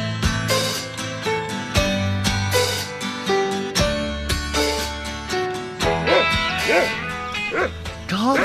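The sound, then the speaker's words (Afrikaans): A dog named Buxie barks loudly and repeatedly at a lizard, a steady run of sharp barks that shift into higher yips toward the end, with voices talking in the background. “blaf vir niks op aarde nie.”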